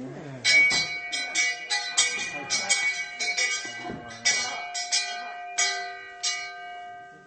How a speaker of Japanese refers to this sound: これ授業が始まりますよっていうお知らせの鐘の音なんですよ、はい、その当時のね当時のでこれでみんなできちんと礼をして授業をしてもらうんです